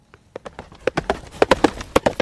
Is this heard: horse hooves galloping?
yes